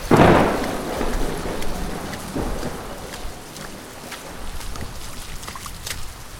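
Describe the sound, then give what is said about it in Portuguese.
A loud thunderclap bursts at the start and rumbles off, followed by steady heavy rain with scattered drips and splashes continuing throughout, no voices. “vamos vazar, tá chovendo muito.”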